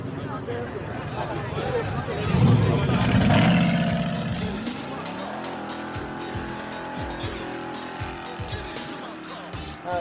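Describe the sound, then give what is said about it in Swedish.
An old American Chevrolet car with no seatbelts: its engine roars and revs hard, its tires squealing as it pulls away, then the motor settles into a steady rumbling drone with faint voices in the background. “Jaha, en sån gammal liksom jänkare. Ja, Chevrolet.”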